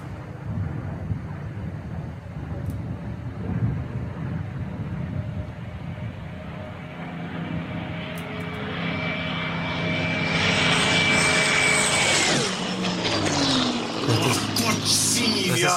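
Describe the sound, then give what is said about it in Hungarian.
A radial-engine propeller plane drones overhead, its engine hum building steadily louder with a sustained tonal whine, then shifting pitch as it passes by, with some wind buffeting in the background. “Nem, ez egy légcsavaros.”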